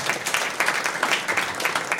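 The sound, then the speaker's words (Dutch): A burst of applause, many hands clapping in a dense, steady patter at an even, moderately loud level throughout, with no voices over it. “dat vind ik wel een applaus ah, waard eigenlijk.”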